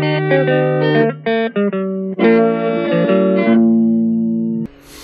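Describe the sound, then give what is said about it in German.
A bright, synthesized intro theme melody of short stacked tones plays loudly and steadily for about five seconds, with a few quick pauses, then cuts to a brief burst of noise at the end. No voices. “unsere Anfangsmusik ja so ein bisschen klingt wie die Anfangsmusik von Löwenzahn”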